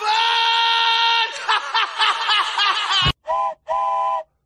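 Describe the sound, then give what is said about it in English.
A loud train whistle sounds a long steady blast, wavers into a fluttering, uneven tone, then gives two short sharp toots to finish, clear with no talking. “Choo choo bitches.”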